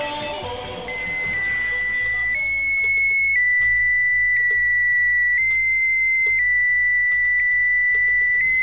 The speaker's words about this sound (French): Eh bien, ce bip bip a décidément quelque chose de bien sympathique. C'est un bip bip qui parle français. Les auditeurs de France Inter le connaissent déjà c'est celui du satellite A1 lancé cet après-midi par la fusée Diamant de la base aérienne